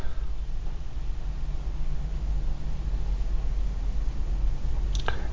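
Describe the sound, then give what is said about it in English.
Wind blows steadily outside, a continuous low rumbling roar with a hissing wash over it and no voices, holding at the same level for the whole stretch. “You hear the wind howling in the background.”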